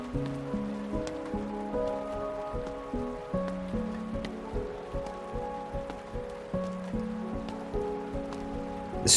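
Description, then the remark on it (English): Steady, not heavy rain patters down outdoors in a town with scattered distinct drops tapping, mixed with soft sustained musical tones that shift slowly underneath. There are no voices. “I walk down a flight of stairs and out into the rain.”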